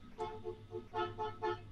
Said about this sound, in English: stop honking.